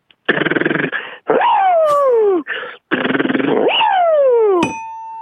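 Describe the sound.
Someone vocally mimics the sound of changing tires at a car repair shop: loud buzzy rattles alternating with long falling whines, repeated twice, ending on a brief steady tone.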